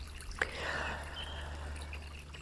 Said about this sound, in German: Ja, einen ganz, ganz lieben Gruß hier aus dem Frühlingswald. Vielleicht hörst du den Bach, vielleicht hörst du die Vögel.